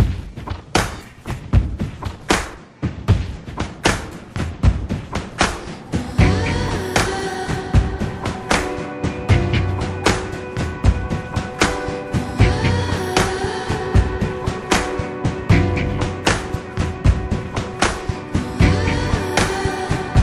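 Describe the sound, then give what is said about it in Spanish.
A music track plays loud and full, driven by a heavy, steady drum beat; sustained instrumental tones join after the first few seconds and carry on over the pounding rhythm. “No sé por qué eso me refirió a la siguiente canción. Vamos a escuchar”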